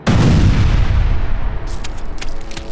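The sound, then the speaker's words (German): A single loud grenade explosion bursts with a heavy low-end boom, then rumbles and crackles as debris-like noise fades over a couple of seconds, with no voices present. “Die Explosion zerfetzte den Körper des Insekts.”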